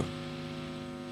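A steady electrical hum drones on without a break, its low tones stacked in even bands, with a faint hiss above; no voices, just the constant buzz of a loudspeaker.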